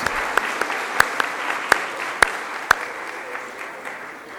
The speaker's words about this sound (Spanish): Bien, papás, ¿qué les parece si recibimos con un aplauso a quienes en este día nos van a hacer la representación? Muy bien, muchas gracias.